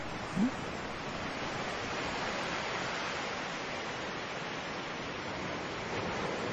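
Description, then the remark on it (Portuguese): Steady, dense rain hiss fills the whole stretch, an even wash of drumming water heard from inside a car sheltering at a gas station, with no voices and no breaks in the downpour. “eu tô me abrigando aqui num posto de gasolina por causa da chuva, né?”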